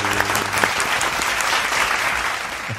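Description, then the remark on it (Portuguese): Steady applause from a group of people, a dense patter of many hands clapping at even loudness for the whole stretch, with a brief low tone fading out at the start. “Palmas aos nossos seguidores que ajudaram a gente a cobrir a obra toda.”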